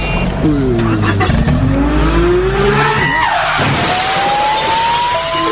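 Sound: car driving off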